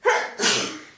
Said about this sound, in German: Entschuldigung. Gesundheit.